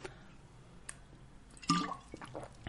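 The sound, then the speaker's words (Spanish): A person drinks water: a few soft wet clicks, then a louder gulp or slurp near the middle, followed by quieter swallowing sounds. “me van a escuchar tomando agua, me van a ver escuchar, eh, me van a ver escuchando, me van a ver tomando agua”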